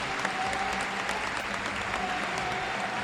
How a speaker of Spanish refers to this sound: En ese aspecto bien trabajado por parte de los paramédicos y ya están sacándolo del cuadrilátero para iniciar rápidamente el recorrido. Cuando la gente, por supuesto, le aplaude a Romero, el cristalito.